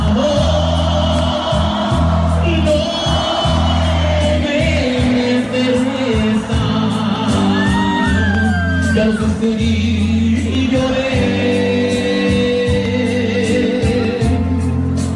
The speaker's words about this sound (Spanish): Los gritos no paraban. Y estos incrementaron cuando … cantó …